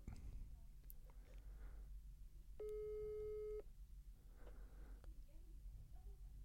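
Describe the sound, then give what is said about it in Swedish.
A single steady telephone ringing tone sounds for about a second on an unanswered call to a mobile phone, standing out clearly over a faint background of low rustling and murmur before the line falls quiet again. “Han verkar inte svara.”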